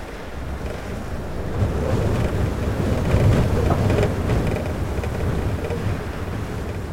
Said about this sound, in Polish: patrzę za okno, śnieg nadal sypie, wiatr e, też wieje.